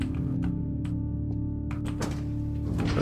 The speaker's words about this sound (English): I just unbolted a giant security door.